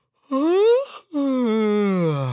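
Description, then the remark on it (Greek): A big, drawn-out yawn: a rising intake that breaks off briefly, then a long, groaning exhale sliding down in pitch. No words are spoken. “χασμουριτό καταπληκτικό.”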